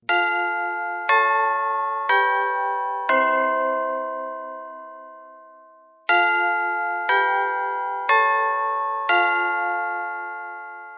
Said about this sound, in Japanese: では、えー、もう鐘が鳴りました。はい。もう授業終わりです。鳴らしましたね。